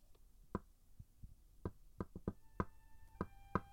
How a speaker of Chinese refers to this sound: 罗夫巴特一直跑，一直跑，跑到奥德特房间的门前，轻轻的敲门。